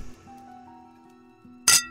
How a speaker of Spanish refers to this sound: Nuestra crónica comienza en Guadalajara, muy cerca de Chapalita, dentro de un moderno y poco visitado bufete de abogados, en el número 685 de la calle Cuautitlán donde tres socios, Ricardo, Epigmenio y Andrés, brindaban por su reciente éxito.